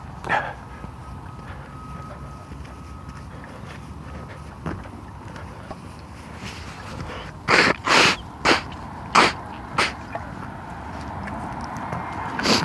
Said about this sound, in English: Blowing my nose does not seem to help much.